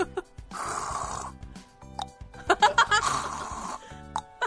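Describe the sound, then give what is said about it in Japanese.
A voice mimics a husband's unusual snoring: a long rasping snore, then a quick run of sharp clicking sounds of the tongue at the back of the throat, with a few isolated clicks afterward, falling into a rhythmic, repeating pattern. “私の夫のいびきは変わっていて、ぐーっといった後コンと喉の奥で下が鳴り、リズミカルに繰り返されます。”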